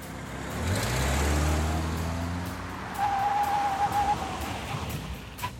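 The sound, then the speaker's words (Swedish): A large, flashy car's engine rumbles and winds down as it rolls in to park on a home garage driveway, followed by a brief thin squeal, all over a steady wash of outdoor noise. No one speaks. “Så ska jag testa om jag kan parkera.”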